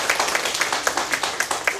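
An audience applauds with steady, dense clapping, individual claps blurring into a continuous crackle with a few sharper peaks standing out every quarter second or so.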